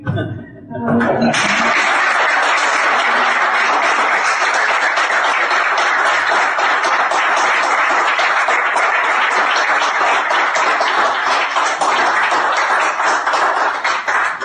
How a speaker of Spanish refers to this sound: Bueno, aplausos frente a la tempestad